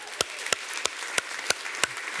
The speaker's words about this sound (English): Amen. I know it sounds like, why are we clapping? Well, here's why we're clapping.